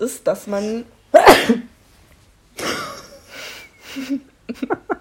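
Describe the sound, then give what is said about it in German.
A single sharp sneeze bursts out mid-conversation, followed by a short pause, then people talk and laugh briefly. “ja, Gesundheit.”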